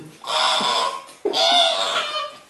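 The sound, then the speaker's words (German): A pig squeals and grunts loudly in two long, harsh bursts, one right after the other, with no talking. “Ich hab so ein Schwein, ich hab so ein scheiß Schlumpfschwein.”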